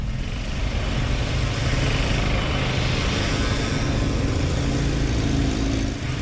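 A steady, loud roar of motorbike engines and exhaust as a stream of motorbikes passes close by along a cycle lane, with droning, revving tones and no break or voices throughout.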